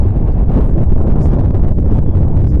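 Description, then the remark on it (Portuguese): Steady, loud wind buffeting a microphone outdoors on a windy day, a low rumbling roar with constant fluttering bursts across the whole stretch and no voices. “Tipo, o foda mesmo é que tá ventando aqui. Tô tentando é. fazer um esquema pra não ficar muito chiado.”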